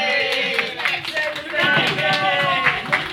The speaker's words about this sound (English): Was that applause for the for the free cake?